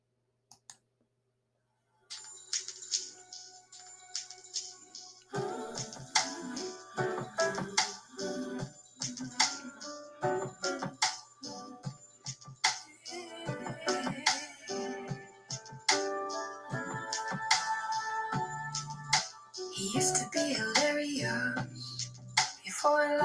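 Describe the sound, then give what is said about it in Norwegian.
A song begins after a couple of seconds of silence, building into a dense, layered instrumental opening with sustained tones and steady rhythmic percussive hits, holding a fairly loud, even level. “Nå skal du få høre de første to minuttene av denne sangen.”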